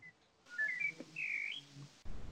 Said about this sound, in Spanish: Ah, qué bonitos ah. pajaritos, güey. Sí, maldita sea. Déjame cerrar. no, pues se escucha bonito.